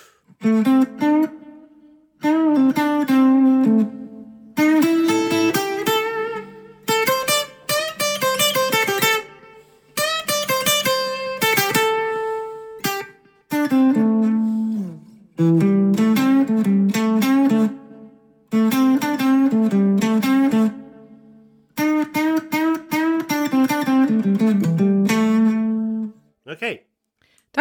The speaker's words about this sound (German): Das ist ja, dann müsste ich diese, diesen Backing-Track, was ich jetzt aufgenommen, habe, nochmal laufen lassen. Und dann würde ich ein Solo spielen.